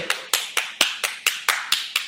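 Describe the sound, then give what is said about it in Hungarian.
Steady, rhythmic hand clapping: about nine sharp, evenly spaced claps at a brisk pace, fairly loud, with no talking. “tapsoljuk meg”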